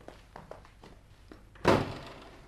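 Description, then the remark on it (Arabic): A door thuds open with one heavy, loud impact that rings out briefly, preceded by several soft taps and shuffling steps, as someone barges in through the door while a man is being examined. “كيفاش انا ما زلت نقلب في الراجل وانت تحل عليا في الباب و... وتدخل”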